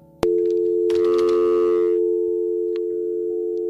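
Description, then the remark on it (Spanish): A loud, steady telephone busy tone after a dropped call starts abruptly and holds at one pitch without a break, with a short burst of clattering noise over it early on. No one speaks. “¿Quién llamó, llame de nuevo, por favor, porque se cayó la llamada.”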